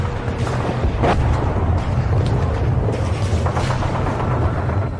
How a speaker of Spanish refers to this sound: Sí, hombre, encima bombardeo. ¿Pero no tenéis otro momento? Hasta los cojones me tienen con tanto disparo y tanta bombita.